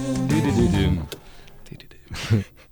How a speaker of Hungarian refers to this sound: Viszont uh, miközben majd uh, mindjárt kapcsolom a vendégünket, és uh, meghallgatunk egy szignált, például ezt. Kedvencünk.